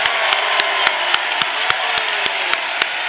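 An audience applauding loudly to give the Lord a big hand, with a thick wash of crowd clapping and a steady, rhythmic beat of sharp claps, about four per second, running throughout without any talking.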